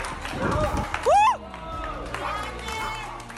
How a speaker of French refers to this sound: Allez Regarde, les gens, ils t'applaudissent, chérie.